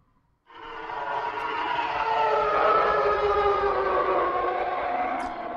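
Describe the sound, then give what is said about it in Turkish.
A loud TIE Fighter starfighter engine scream bursts in after a brief silence and holds steady, a dense, harsh, wailing roar that swells slightly and sustains alone to the end. “TIE Fighter sesi neydi?”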